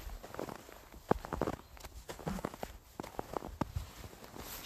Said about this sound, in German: Schneeknirschen. Ich bin gerade unterwegs nach einer durchschneiten Nacht.